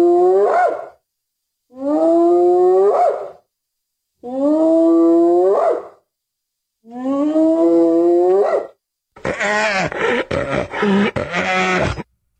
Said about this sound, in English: Oh, I'm sorry. That was just a bunch of cackling hyenas.